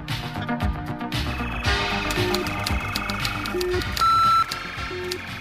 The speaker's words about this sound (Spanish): Mientras tanto, abundan las teorías conspiranoicas para explicar el propósito del zumbido de esta secreta estación de radio, pero eso ya es otra historia.